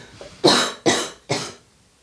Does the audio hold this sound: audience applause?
no